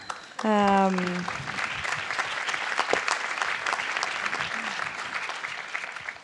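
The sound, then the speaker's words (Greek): An audience breaks into sustained applause, a dense wash of clapping that stays steady for several seconds, opening with a brief harmonic tone at the start. “έτσι να χειροκροτάμε και στην καθημερινότητά μας τις δυσκολίες, εγώ θέλω.”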